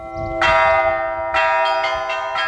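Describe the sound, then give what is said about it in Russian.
Church bells ring out from a belfry built for Easter that holds five bells, the largest bearing the Seven-Arrows icon of the Softening of Evil Hearts; several strikes in quick succession with rich, sustained overtones layering into a clanging, festive peal. No voices, just the bells ringing loud. “Звонница была возведена к Пасхе, и на светлой седмице ее и пять колоколов осветил протеерей Александр Степанов”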